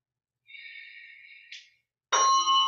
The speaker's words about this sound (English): There we go. That's better. I don't know if you can hear how much clearer the fork is now.